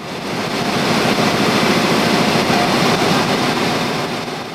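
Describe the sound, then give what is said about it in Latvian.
A printing press at a printing company on Mūku salas iela in Riga, Latvia, in autumn 2020 starts printing the 21 September issue of the newspaper Latvijas avīze: a dense, loud mechanical roar with rapid clattering swells in within the first half second, then holds steady and continuous, with no voices. “Poligrāfijas uzņēmuma darbinieki iespiedu mašīnā sāk drukāt laikrakstu.”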